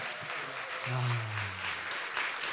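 Steady clapping fills the whole stretch, a dense crackle of many hands, while voices whoop and cheer over it with drawn-out, rising calls.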